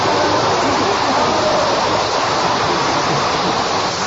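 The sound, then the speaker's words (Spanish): A show audience applauding a contestant during a timed 20-second segment, loudly and steadily, a dense wash of clapping with no breaks for about four seconds. “Mira cómo te aplaude el público.”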